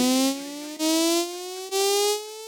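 A loud, buzzy electronic beeping tone sounds alone as three sustained beeps joined by brief gaps, its pitch gliding steadily upward across the run.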